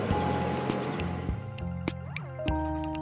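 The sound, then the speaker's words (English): The wheels of a train carrying sensors aboard clank over rail joints in a run of sharp, irregular bangs above a steady low rumble and faint squealing tones, fairly loud, with no voices. “The train with our sensors aboard is just pulling through. Every noise you hear, every bang, it's hitting a joint or it's hitting the rail.”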